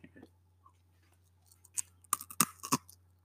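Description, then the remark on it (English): A mouthful of six or seven barbecue crisps being crunched: a few quiet rustles, then a cluster of sharp, brittle crunches in quick succession over a steady low hum. “You should have done that crunching that you've just done closer to the microphone.”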